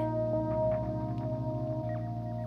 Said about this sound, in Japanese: 女透明な駅員を見つめるどこからか電車が来る音がする